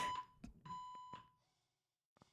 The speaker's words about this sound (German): Ist bei dir gerade Feueralarm oder so? Das hört sich Ach, so an, als würde gerade Dampf irgendwo rauskommen bei dir.